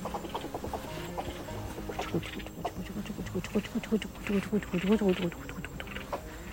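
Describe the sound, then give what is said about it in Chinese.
A busy chorus of fowl-like birds clucking and calling over one another outdoors, with repeated short rhythmic calls growing louder midway, alongside some voices in the background. “哎，这还真的是，都是种菜果园什么，还有好多鸟禽，声音很多。”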